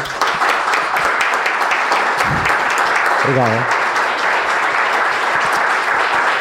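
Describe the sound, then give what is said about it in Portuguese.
Loud, sustained applause from an audience for a woman, requested by the speaker, a dense steady wash of clapping that fills the whole stretch, with a woman's brief spoken word heard over it. “a quem eu peço um aplauso gigante aqui da.”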